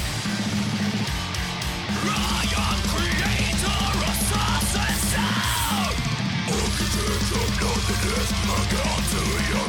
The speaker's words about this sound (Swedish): Ja, det här, det här är ju mellow death thrash. Och det ser ut att vara en riktigt jävla lång låt också.